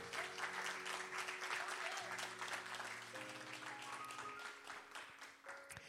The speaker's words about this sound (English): Come on, that's a good reason to give the Lord a hand clap.